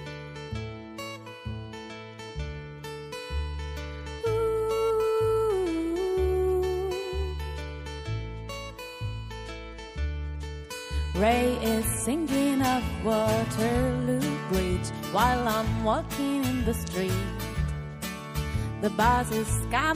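A band plays a song live with a steady, pulsing bass beat and layered instruments; about halfway through, a lead singer comes in over the full, loud mix.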